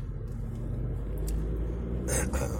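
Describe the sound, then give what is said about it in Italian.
A car engine rumbles steadily in a traffic queue, a deep continuous low drone, with a brief broader burst of road noise near the end as vehicles shift. “Mamma mia che coda ragazzi, tutti agitati. Mamma mia, che potenza.”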